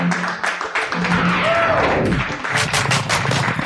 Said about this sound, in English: Oh, look at that. Lovely applause.